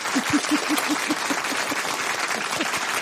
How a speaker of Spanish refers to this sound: Aplausos, clap, clap, clap.